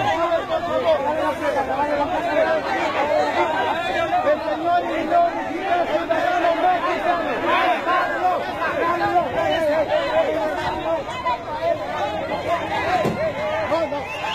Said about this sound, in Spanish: tenemos el audio donde la caravana se están peleando con policías oficiales porque están empujando